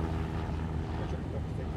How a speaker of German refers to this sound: An einem strahlend blauen Himmel zwischen Florida und Kuba. Februar 1996. Drei zweimotorige Cessna Skymaster fliegen im Verband nach Süden Richtung Kuba.